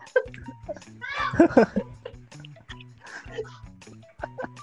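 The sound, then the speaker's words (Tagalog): Children's voices chatter and giggle in bursts, with a cluster of high-pitched laughter near the middle, over a busy, uneven background of clatter and murmuring. “Hoy, mga bata, umalis kayo dyan! Ingay-ingay nyo!”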